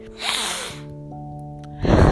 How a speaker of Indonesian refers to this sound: supaya udara masuk ke paru-paru gue lebih banyak dan tekanannya mampu menghilangkan tersumbat yang ada di hidung gue